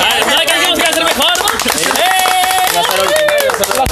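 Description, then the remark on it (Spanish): A canned applause effect: dense, steady clapping for about four seconds, with voices and a few rising whoops mixed in over the crackle. “Está creyendo de los aplausos falsos.”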